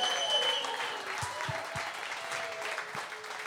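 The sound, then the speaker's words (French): An evening audience applauds steadily for Martin Deschamps, with dense overlapping clapping and a few cheers mixed in, sustained at a moderate level throughout. “Ah, come on, s'il vous plaît, faites du bruit!”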